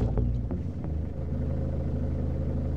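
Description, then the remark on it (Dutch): Steady low engine rumble from inside a moving car being driven early in the morning, with a few brief clicks or bumps early on, then a continuous droning hum with no talking. “Voor deze dag ben ik heel vroeg opgestaan, in mijn auto gesprongen en ik rijd naar SME toe, de jeugdbeschermer met wie ik vandaag meeloop.”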